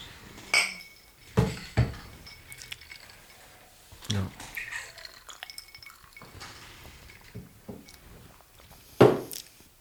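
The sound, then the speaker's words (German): Glasses clink together in a toast, several sharp, bright taps spread unevenly across the moment, with quieter rustling and faint handling noises in between. “Cheers. Prost.”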